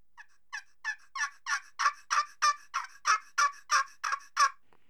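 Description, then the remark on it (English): A turkey scratch box call, held directly on the striker and run without any roll or flick of the wrist, rattles out a rapid gobble imitation: about thirteen sharp raspy bursts in quick even rhythm, loud and held very close to the microphone, building slightly in intensity before stopping abruptly. “so that's just holding that scratch box directly on the striker and just running it, you know, without any roll in the wrist or any, you know, yeah.”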